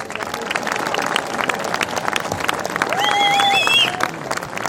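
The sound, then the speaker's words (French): A crowd applauds itself steadily, dense clapping spread across the whole stretch with a few whistles rising above it near the end. “Et franchement, là, j'aimerais qu'on s'applaudisse tous parce que vous êtes véritablement incroyables.”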